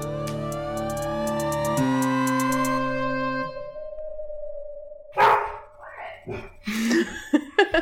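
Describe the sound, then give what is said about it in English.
A dog barks excitedly at someone arriving home, in a quick burst of repeated, fairly loud yaps. The barking starts right after a musical passage with a lingering tone fades out. “think my roommate just got home. Delilah is excited.”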